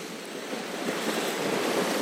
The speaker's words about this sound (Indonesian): Mungkin kehidupan lo saat ini terasa setenang ombak-ombak yang gue lihat sekarang. Tapi yang namanya ombak bisa juga akan gede.